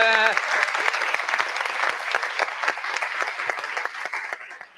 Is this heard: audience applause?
yes